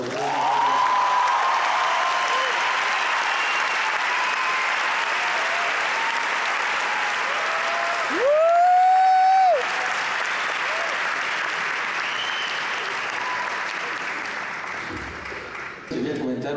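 A live audience at a concert claps steadily and loudly for about fifteen seconds as a singer is invited onto the stage, with a brief shrill whistle cutting through midway before the applause gradually thins out at the end.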